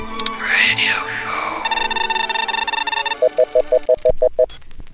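An electronic alarm clock goes off loudly: a warbling tone and a sustained buzzy drone, then about eight quick, evenly spaced high beeps. No one speaks.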